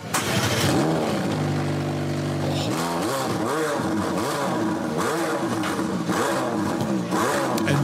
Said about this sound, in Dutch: Nou, ik vind het geluid is niet het sterkste van de McLaren hoor. Het klinkt alsof je een paar bomen aan het omzagen bent.